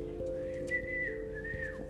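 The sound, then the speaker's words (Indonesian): A person whistles a short, wavering high melody in imitation of a flute, the tone gliding and sustained over a steady low hum in the background. “Okay, I can play the flute.”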